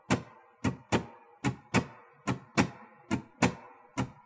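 A stringed instrument strummed in a lilting swing shuffle, sharp strokes falling in uneven long-short pairs, moderately loud, with no voices over it.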